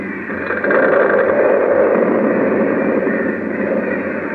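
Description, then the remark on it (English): A building with an undermined foundation collapses into a hole with a loud, continuous roaring rumble that swells in after a brief moment and holds steady for several seconds, a dense wash of crashing debris with no voices. “Harris Hall caved right in the hole.”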